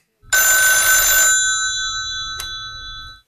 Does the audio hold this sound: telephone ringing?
yes